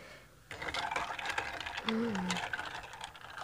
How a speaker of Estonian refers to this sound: see on üks ilusamaid helisid. pühalik hetk, segatakse jääkubikuid. laste naer on ilus, siis see on ka väga ilus no ma eelistaksin isiklikult seda heli praegu, mida ma kuulen